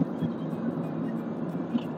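A steady low rumble of road and engine noise fills the inside of a moving car on a drive taken so a young son can nap, constant and even throughout with no voices.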